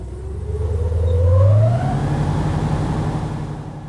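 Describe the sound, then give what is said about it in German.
A loud, steady airboat engine roar with a low droning tone that rises in pitch as it revs, then holds at a higher, even hum over broad rushing noise as the airboat glides over water and drifts into curves in the Everglades, in bright sunshine. “die Fahrt mit den Airboats macht wahnsinnig viel Spaß. Man gleitet mehr oder weniger über das Wasser und driftet in die Kurven rein.”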